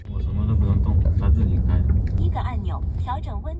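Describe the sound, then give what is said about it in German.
A steady, loud low rumble of a driverless, fully autonomous car moving through normal city traffic in Shenzhen, China, with road and engine noise throughout and someone talking over it toward the end. “Das Auto fährt ohne Fahrer, vollautonom im normalen Stadtverkehr.”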